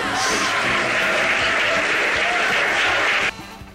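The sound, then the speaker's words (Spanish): A burst of applause from a group welcoming a guest on a show, dense and steady clapping at a loud, even level for over three seconds, then cutting off abruptly to a quiet background. “Se escucharon los aplausitos, todo.”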